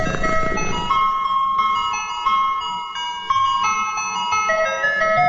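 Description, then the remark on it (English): A bright, tinkling ice cream truck jingle plays steadily from the ice cream man's truck down the block, its electronic chime melody repeating at a moderate volume with faint road rumble underneath and no one talking. “It's like the ice cream man. It's the ice cream man. He's down the block.”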